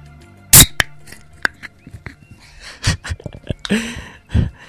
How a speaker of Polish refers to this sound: I zacznę podcast z otworzeniem e, e, puszki piwa, nie powiem jakiej marki, żeby ktoś się znów nie doczepił. Proszę bardzo, otwieram puszkę na antenie.